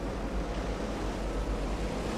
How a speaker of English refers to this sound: up and down the lonely shoreline of the lake on this blustery day. The water is moving, swirling, rippling